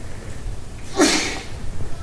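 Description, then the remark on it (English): A single quick sneeze bursts out about halfway through, short, against quiet faint background noise before and after. “Bless you.”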